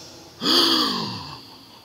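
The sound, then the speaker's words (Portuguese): A single sharp gasp of astonishment, voiced, rising quickly then trailing off over about a second, performed by a person on its own with no talking. “A palavra agradou no hebraico é surpreender ao ponto de tirar a respiração.”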